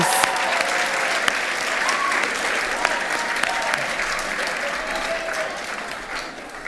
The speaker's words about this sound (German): Komm. Welcome! Herzlichen Applaus!